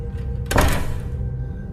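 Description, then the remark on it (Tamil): A single heavy thud as a room door swings shut by itself, loud, with a brief rumbling decay over a low, steady background hum. “அந்த ரூமோட கதவு தானாகவே க்ளோஸ் ஆகுது”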